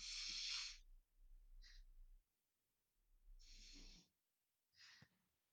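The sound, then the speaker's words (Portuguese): Two slow, deliberate diaphragmatic breath cycles, one hand on the chest and one on the belly, each a long, airy inhale followed by a shorter, breathy exhale, with quiet pauses between them and no talking. “Ou seja, respirando, respirando, utilizando o movimento do diafragma para fazer essa, essa inspiração.”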